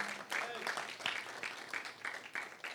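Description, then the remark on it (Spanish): An audience applauding the Lord in steady, dense clapping for a few seconds, with voices and shouts mixed into the noise. “Se van a aplaudir al Señor, háganlo con alegría.”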